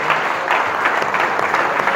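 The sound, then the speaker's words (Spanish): An audience claps for God steadily, many hands producing a dense, continuous patter of applause that stays fairly loud and even for about two seconds, with no voices standing out. “¿Por qué no le damos un aplauso a Dios por lo que Él ha hecho?”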